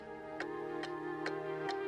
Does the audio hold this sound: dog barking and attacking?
no